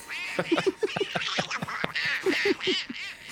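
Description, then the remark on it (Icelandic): A raspy, quacking cartoon-duck voice of Andrisönd (Donald Duck) sputters out a rapid string of nasal honks, loud, with a brief break in the middle before another quick burst of quacks, played as a voice in a quiz game. “Kunnið þið að tala eins Andrisönd?”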